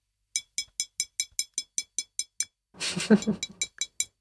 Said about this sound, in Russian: Так, а сейчас я возьму еще, вот у меня тут стоит стекло, типа чашечка, и я постучу по ней.